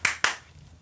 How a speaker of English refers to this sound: You gotta at least clap four times. Was that three? Four.